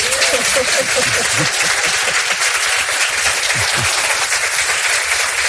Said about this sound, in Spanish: ¿Pueden aplaudir para que la gente vea que hay mucha gente allí? A ver.